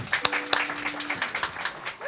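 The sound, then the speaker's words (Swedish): A crowd applauds guitarist Petter Näse as he is introduced, many hands clapping in a dense, even patter, with a faint sustained tone underneath and a couple of sharper claps standing out early. “Petter Näse här på gitarren. En stor applåd, tycker jag.”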